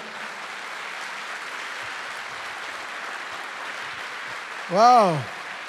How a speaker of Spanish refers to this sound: ¿Cuántos dicen amén? Ahora dele fuerte ese aplauso al Señor.